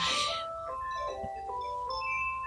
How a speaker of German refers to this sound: Telefon. Ja, geht schon los. Also mal kurz Themenwechsel. Eben hat das Telefon geklingelt und es hat jemand angerufen.